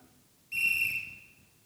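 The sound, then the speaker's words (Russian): A single sharp, shrill whistle blast, blown as a penalty signal, rings out loud, holding steady for under a second before cutting off, with no talking around it. “сразу свисток.”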